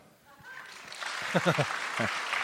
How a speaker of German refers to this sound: äh, als erstes mal euer Applaus